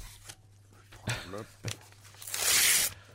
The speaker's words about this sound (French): Aïe, ah, j'ai un peu déchiré l'enveloppe au passage. Hein. un peu fait son sort à l'enveloppe.